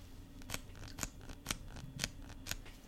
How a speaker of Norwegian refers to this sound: Det er foten min som knekker. Det er min vrist. Det er et bitte lite ben som har knukket. Og det er på begge føttene mine.